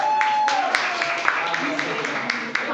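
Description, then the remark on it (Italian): An audience applauds a guest steadily for a few seconds, a dense wash of many hands clapping at once, with a few sharper claps standing out and a brief whistle-like tone at the start. “un applauso.”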